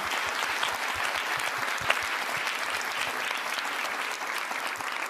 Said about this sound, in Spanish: Un aplauso, muchachos. De verdad, está muy divertido.